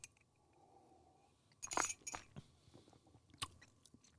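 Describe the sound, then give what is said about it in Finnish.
A quiet slurping sip of tea with honey from a cup, a few wet sucking sounds in quick succession, followed by a light clink of the cup. No talking. “Niin nyt kun mä hörppään tätä,”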